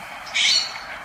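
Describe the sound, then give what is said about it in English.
A California scrub jay gives a brief, harsh call rising sharply near the middle, heard from a back deck in Santa Cruz, California, with fainter chirps from other birds such as dark-eyed junco, yellow-rumped warbler and California towhee scattered around it outdoors. Nobody is talking. “I'm on my back deck with my spirit bird, the California scrub jay,”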